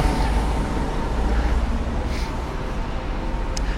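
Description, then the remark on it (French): Steady road traffic with a deep engine rumble as a motorcycle and a truck go by, a continuous, fairly loud wash of vehicle noise with no voices. “Je crois que nous allons avoir une moto et 5 points, moto plus camion, plus...”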